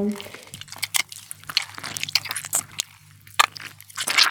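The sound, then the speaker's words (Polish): Wet, squelchy squishing of a finger pressing into a partly squeezed citrus fruit such as an orange, tangerine or grapefruit, with less pulp left inside, a string of irregular juicy squelches and crackles, fairly loud, with a low steady hum underneath. “A na przykład pomarańcze, mandarynki, grapefruit, jak tylko trochę je już je wyciśnie, już mam mniej tego miąższu i tam dali wciskasz palc do środka, to brzmią najfajniej,”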